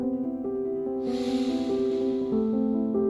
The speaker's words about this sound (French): Prends le temps d'une respiration. Inspire